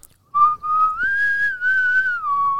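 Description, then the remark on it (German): A person whistles a short melody, a clear tone gliding smoothly up and down across a few sustained notes for about two seconds, with no talking. “ich dachte mir, was pfeift die da?”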